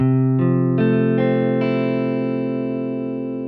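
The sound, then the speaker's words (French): A four-note E major seventh guitar chord built up note by note: the fifth, third, root, the fifth again higher, then a fourth note. Each new tone enters about every half second and rings with the others into a sustained, effects-laden chord that slowly fades, with no talking. “On a donc dans l'ordre la quinte, puis la tierce, la tonique, puis la quinte de nouveau, qui se répète dans les aigus, et surtout une quatrième note, donc on arrive sur un accord à quatre sons, l'accord de mi-aigu, qui est une septième majeure.”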